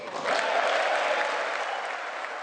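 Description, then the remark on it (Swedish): Steady applause from the audience at the State of the Union address, a dense wash of clapping that swells quickly at the start and holds at an even, fairly loud level throughout, with no speech over it. “Ja, det är mycket applåder däremellan det som sägs, men det här var ju inledningen då av årets State of the Union.”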